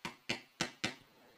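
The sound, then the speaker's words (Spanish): Four sharp knocks on a door in a quick, slightly uneven rhythm, fairly loud, with nothing else heard afterward. “Eh, les va a tocar la puerta porque pues iba a no saber boba.”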